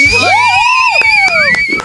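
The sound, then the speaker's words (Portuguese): A loud, excited crowd cheers to welcome Renata Braz, with shrill sustained whistles cutting through and scattered claps of applause, all packed densely together for a couple of seconds. “Gritos, foi. assobios. Berros, sussurros, sussurros aplausos, aplausos para nossa grandíssima Renata Braz!”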